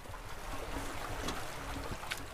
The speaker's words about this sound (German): Neben der Kuhweide fließt ein Bächlein. Gluckernd erzählt es davon, dass der Schnee schmilzt, der Frühling bald kommt.